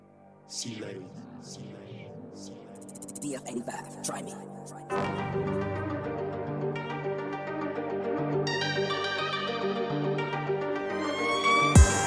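A hip-hop track intro plays: sparse, echoing tones and vocal-like snippets for a few seconds, then a full, loud beat with sustained melodic layers kicks in and continues steadily.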